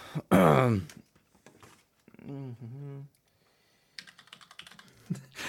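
Crisp computer keyboard typing, picked up by a keyboard microphone for ASMR: a quick run of light clicks and taps toward the end, preceded by a loud breathy vocal burst and a short sung or hummed tone.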